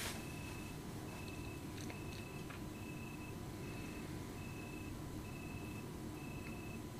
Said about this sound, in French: Je sais pas si vous entendez, il y a un grillon qui fait un super bruit.